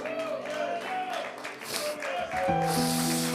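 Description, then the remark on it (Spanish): An audience applauds for the Lord, a steady wash of clapping that swells toward the end, mixed with sustained musical chords and voices. “Si ese aplauso es para el Señor, colóquese de pie y bríndeselo, pero bríndeselo con amor, apláudale con amor, abra sus labios y alábele con amor,”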